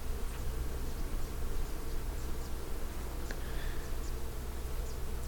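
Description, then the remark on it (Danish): A steady, dense drone of many bees buzzing together in the morning as they push their long tongues into the furry catkins of a flowering tree, continuous with no pauses, and a few faint higher chirps now and then in the background. “Og her om morgenen under myggen, der, der vågner man så sådan en, en, en snorende, spændstig lyd af bierne, der er i gang med at stikke deres lange sugerør ned i de pelsede dolmer, der vokser på træet.”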